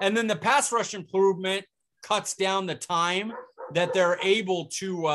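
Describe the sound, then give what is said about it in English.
A man's own dogs bark outside while he keeps talking over them, their barks mixed under his voice and not very prominent. “So they're they're they're messing things up by barking out there.”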